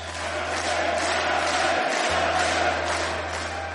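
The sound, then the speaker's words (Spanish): A crowd applauds and cheers without pause, a dense, steady roar of clapping and shouting that stays loud for about four seconds over a low electrical hum. “Tiene más aplausos que César Cucho Alasta, eh, aviso.”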